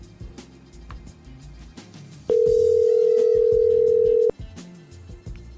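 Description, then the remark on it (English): A single loud, steady telephone ringing tone while calling, a low electronic buzz lasting about two seconds before cutting off, with faint background noise around it. “So this guy said to keep calling.”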